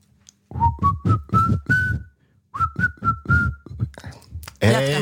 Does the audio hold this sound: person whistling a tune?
yes